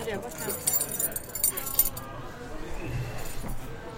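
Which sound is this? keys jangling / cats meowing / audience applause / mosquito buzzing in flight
keys jangling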